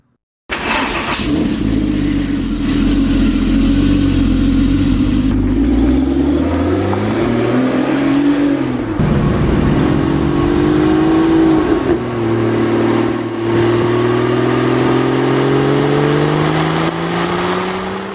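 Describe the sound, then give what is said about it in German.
A Ruf CTR sports car engine starts up and revs repeatedly, the pitch sweeping up and down through several loud throttle blips before settling toward a rumbling idle, with no voices. “Und wie immer hier bei Motorikonen gibt es jetzt auch vom CTR was auf die Ohren.”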